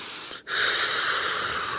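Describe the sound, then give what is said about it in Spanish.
A deep breath: a short airy intake, a brief pause, then a long, steady, breathy exhale with no talking. “Yo me agarré profundamente de mi respiración durante este proceso y como que neta hacía unas respiraciones súper, súper profundas de que”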